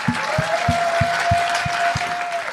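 An audience at a stand-up comedy show applauds steadily throughout, a dense wash of clapping with a faint sustained tone and rhythmic low thumps underneath, and no one speaking.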